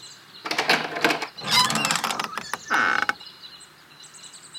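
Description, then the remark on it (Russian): The door of a cube in a forest creaks open in several grinding, scraping bursts over about three seconds, fairly loud, then the sound fades into a quiet, hushed background. “Он находит в лесу куб, открывает дверь.”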